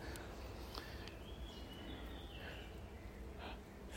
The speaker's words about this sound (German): Vögel zwitschern hört man.